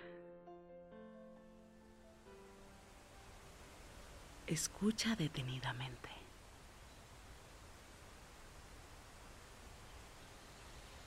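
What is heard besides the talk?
rushing waterfall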